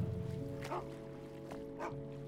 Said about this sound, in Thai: ไอ้ดอกมันส่งเสียงเห่าชายแปลกหน้าบนสะพานอีกครั้ง